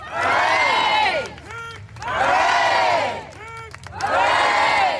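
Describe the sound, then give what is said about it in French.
A crowd at Buckingham chants hip hip hurrah in a loud, rhythmic cycle: a short rising call followed by a long massed roar, repeated three times. “Et là, dans la foule, il y a des gens qui commencent à euh, crier des hip hip hurrah.”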